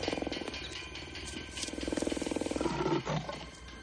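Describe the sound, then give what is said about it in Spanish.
A tiger roars and growls in a zoo enclosure, a deep rumbling, pulsing sound that swells louder toward the middle before easing off, with no voices present. “En el zoológico, varios jóvenes pasan junto a la celda del tigre.”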